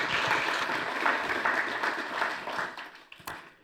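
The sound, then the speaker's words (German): A crowd in a church applauds steadily with dense, overlapping clapping that holds for a few seconds and then thins out and fades, ending with a single sharp clap near the close. “Gebt ihr einen Applaus.”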